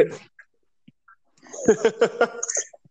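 A man shouts in the background: a run of four or five short, strained vocal bursts in quick succession, moderately loud but somewhat distant, after a mostly quiet opening.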